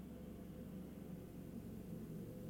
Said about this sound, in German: Bro, das sind zwei Hubschrauber nebeneinander. Lit.